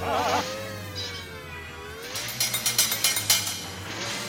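A hammer drives a nail into rock about eight times in a quick, steady rhythm, each blow sharp, over a continuous low mechanical hum that runs through the whole clip.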